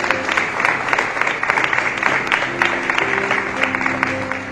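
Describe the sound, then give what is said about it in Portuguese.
A large crowd applauds steadily in praise of God, dense clapping filling the space at a loud, even level, with sustained tones from instruments or a keyboard held underneath. “Dá um aplauso a esse Deus maravilhoso.”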